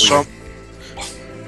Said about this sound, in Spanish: eso era mi perro ladrando.